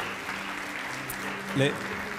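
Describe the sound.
An audience claps steadily for a couple of seconds, a dense, even patter of many hands, with a voice briefly rising over the applause near the end.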